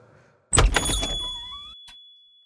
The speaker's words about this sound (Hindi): salon का दरवाजा खुला और एक आदमी बिना इधर उधर देखे सीधे आके कुर्सी पे बैठ गया